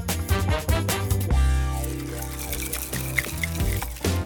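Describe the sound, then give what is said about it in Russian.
Liquid pours into a glass, with a gurgling stream whose pitch rises as the glass fills. Brief clinks and splashes follow, with no voices. “И, понимаете, у них иногда вот эта наша история, когда мы немножко из одного налили, потом из другого, она может восприниматься как некое мухлевание с разведением водой.”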